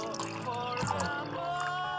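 Water is poured steadily into a small glass for about two seconds, a continuous trickle with a ringing tone that rises as the glass fills.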